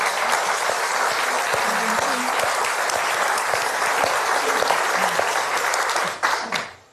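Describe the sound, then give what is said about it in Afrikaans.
An audience applauds a woman speaker after her talk, a dense wash of clapping that stays loud and even for several seconds, then fades out abruptly at the end. No one speaks over it. “Kom ons gee haar.”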